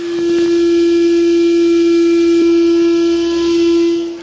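A loud, steady whistle of escaping steam, like a pressure cooker venting, holds one piercing tone over a breathy hiss for several seconds without a break.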